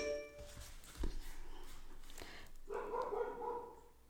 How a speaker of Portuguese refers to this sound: Ai meu Deus. Meus cachorros surtando.